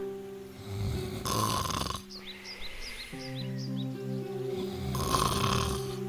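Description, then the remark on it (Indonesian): Loud rhythmic snoring of a wolf lying asleep under a tree in a large yard, with deep, rumbling inhales and exhales, two heavy snores separated by a quieter pause where faint bird chirps twitter above a low harmonic hum. “Serigala berbaring di bawah pohon dan mulai tidur. Dan mendengkur.”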